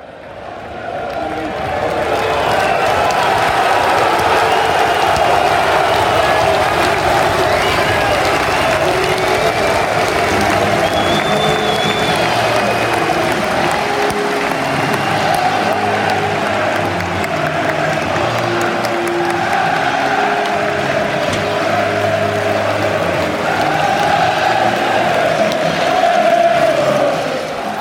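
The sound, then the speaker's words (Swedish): A large football stadium crowd roars and applauds continuously, a dense wash of cheering, clapping and chanting voices that swells slightly near the end, with no clear single speaker. AFC Wimbledon host Bolton in August 2021 at the rebuilt Plough Lane, its first match there with spectators. “Så här lät det när Wimbledon tog emot Bolton.”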